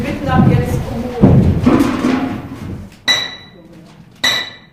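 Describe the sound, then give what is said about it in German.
During bell casting, a worker in a silver protective suit and gloves stands at the melting furnace and knocks out the clay plug holding back the bell metal: two sharp, ringing metallic strikes about a second apart, following a stretch of murmuring voices and clattering noise. “Einer der Arbeiter mit Silberschutzanzug und Handschuhen steht vor dem Schmelzofen und schlägt den Lehmpfropfen heraus, der geholfen hat, die Glockenspeise zurückzuhalten.”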